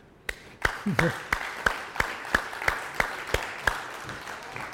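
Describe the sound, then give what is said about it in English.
Applause to God in a steady, even rhythm: crisp, loud claps landing about three times a second for several seconds, with a brief faint voice early on. “And we end with an applause to God.”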